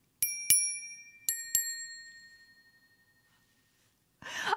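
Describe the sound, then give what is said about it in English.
A metal cocktail jigger (measurer) from a bar cart is struck four times in two quick pairs, each ping ringing out in a clear, bell-like tone that slowly fades, followed by a brief breathy exhale. “I don't know what it is about like the magical sound of this cocktail measurer.”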